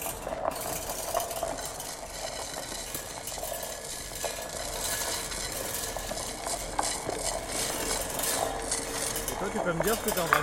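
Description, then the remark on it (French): A cheese grater is rubbed steadily across metal bars, making a continuous, gritty metallic rasping that keeps up without pause from start to finish. “Hein je sais pas ce que je suis en train de faire, je suis juste en train de frotter euh, euh, une sorte de rap à fromage sur, euh, sur des barres et ça fait un son assez mélodieux, on va dire.”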